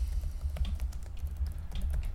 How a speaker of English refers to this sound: We're gonna type, and you're all gonna hear us banging on the keyboards.